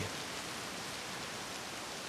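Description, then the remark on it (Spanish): Steady rain falls on an empty sandy beach in a continuous, even hiss of countless drops, fairly soft, with no voices or other sounds breaking through. “La playa, que hace una hora refulgía bajo la luz del sol, repleta de gente, ahora se me presenta vacía, ensombrecida y cruda, salvaje y calma, como esta misma lluvia.”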